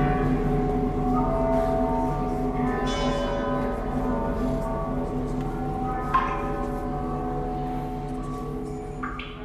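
bells

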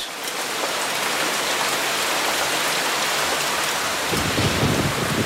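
heavy rain with thunder

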